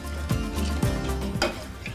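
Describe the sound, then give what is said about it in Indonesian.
A spoon stirs a liquid mixture in a pot, with about 400 ml of water just added and before the heat is turned on, making steady swishing and a few soft scraping knocks against the sides at a regular pace. No one speaks. “Oke, semuanya sudah dituang, tinggal kita aduk-aduk dulu sebentar, baru setelah itu kita nyalakan apinya ya.”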